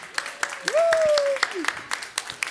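An audience applauds with scattered, irregular claps at moderate volume, while a long, steady whistle rises and holds briefly over the clapping before sliding away.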